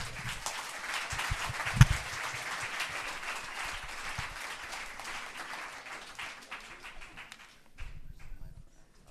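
An audience gives a warm round of applause for two people called up to the front, a dense crackle of many hands clapping that holds at a moderate level before thinning out and fading near the end. No one speaks over it.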